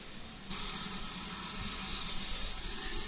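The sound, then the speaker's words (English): A double-headed locomotive pulls into Alresford station: a loud, steady hiss of steam bursts in after half a second and holds over a low rumble, with no voices. “As we wait here at Alresford for the first train to leave, another locomotive is coming into the station. In fact, this one looks to be double-headed.”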